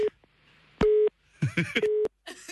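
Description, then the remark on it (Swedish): A telephone's steady electronic ringing tone sounds as a call is placed, in short, evenly spaced pulses, three in a row, with people's voices talking in the gaps between the beeps. “Nu ringer, nu ringer jag, vad heter din chef?”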